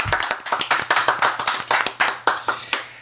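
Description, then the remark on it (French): Rhythmic clapping from a studio audience at Radio-Canada Première, a steady run of sharp hand claps repeating at a brisk, even pace for a few seconds with no talking. “On voit que les gens en studio ont beaucoup apprécié.”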